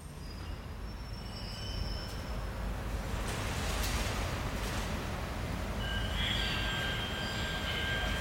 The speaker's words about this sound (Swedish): Nästan tio år senare kliver jag och Urban Järdek på ett pendeltåg i centrala Stockholm.